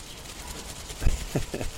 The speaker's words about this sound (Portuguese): Porra, o microfone, eu botei um negócio aqui, mas é um plástico aí, ó. Será que ouve quando mexe o plástico?